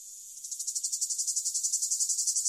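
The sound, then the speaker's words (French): European cicadas singing: a shrill, high buzzing that swells into rapid, evenly pulsed throbs, steady, with no voices or other sounds around it. “Prière donc de ne pas confondre ces grillons des bois avec ces cigales européennes”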